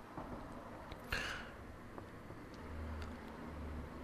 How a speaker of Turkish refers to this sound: bu arada pencere açık araba sesi duyuyorsunuzdur belki. Daha doğal olsun diye. Hem doğal olsun diye hem de e, diğer insanlar uyanmasın. Yani o araba sesi bastırsın benim konuşmamı da diğer insanlara benim konuşmam gitmesin diye